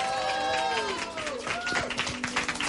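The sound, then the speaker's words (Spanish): An audience breaks into steady, dense, well-deserved applause for a couple who are present, with many hands clapping at once, mixed with cheering and whooping voices throughout the short burst. “O sea, un aplauso bien merecido.”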